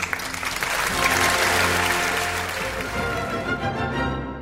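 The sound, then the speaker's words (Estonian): A crowd applauds steadily at the opening of the Eesti Kontsert radio programme Aplaus, the dense clapping swelling briefly and then holding, with sustained musical tones underneath. The clapping thins slightly toward the end. “aplaus on eetris”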